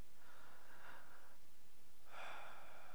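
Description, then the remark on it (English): Two quick, gasping breaths, one after the other with a short pause between, as a person imitates panicky breathing; fairly quiet, with no talking. “slow breaths, not panicky.”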